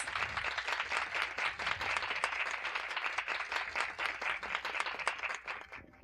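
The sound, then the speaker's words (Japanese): An audience gives sustained applause to welcome speaker Tsuruoka of BASE, a dense wash of many hands clapping steadily for several seconds before starting to thin out at the end. “それでは皆様拍手で鶴岡さんをお迎えいたしましょう。”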